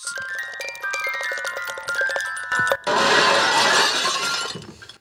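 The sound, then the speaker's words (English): A music box plays a few bright, tinkling notes, then is abruptly smashed with a loud crash and a sustained spray of breaking, shattering debris that slowly fades. “Smashed music boxes looking for important clues.”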